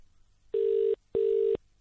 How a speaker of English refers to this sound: If they answer. No wonder America is being overtaken by China. They can't even bother to answer the phone.